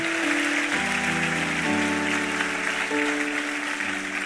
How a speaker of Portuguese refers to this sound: Você acredita nisso, amém ou não? Então aplauda ele bem forte.